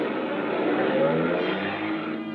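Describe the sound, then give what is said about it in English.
An old-model car parked at the street starts and drives away, its engine rumbling and revving steadily for a couple of seconds, moderately loud, with its pitch rising slightly as it pulls away. No voices. “Then, when I walked toward him, he scurried out of the drive and slipped into a car parked at the street.”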